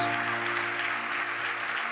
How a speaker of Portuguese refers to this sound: Dá uma salva de palmas para Jesus para receber essa galera. Vocês são muito bem-vindos.